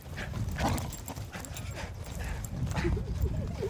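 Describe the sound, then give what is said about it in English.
About a dozen puppies scamper through dry sagebrush in an open area outside the Ruffwear building: a busy, continuous patter of paws and rustling twigs, with a few faint whimpers near the end. “And if all mosh pits were like this, just a dozen happy puppies running through sagebrush, I'd probably go to more concerts”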